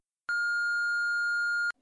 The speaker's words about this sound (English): You've reached the Another Space voicemail box. Please leave a message after the beep.